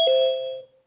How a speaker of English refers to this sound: Ding dong.